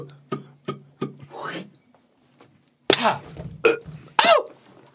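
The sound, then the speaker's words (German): A voice imitates the first rally of the 1984 Wimbledon final, Jimmy Connors against John McEnroe, with a quick series of sharp mouth pops and clicks, followed by a brief pause, then louder, bouncier vocal thwacks and swooping sounds. “So ungefähr lief der erste Ballwechsel ab in diesem Spiel damals im Finale von ja. Wimbledon 1984.”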